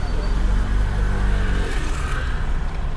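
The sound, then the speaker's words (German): A small car's engine rumbles, its low hum steady for a moment before dropping away as the car pulls up and stops alongside in a refugee camp, with faint background murmur continuing. “Nach ein paar Minuten hält ein kleines Auto neben uns.”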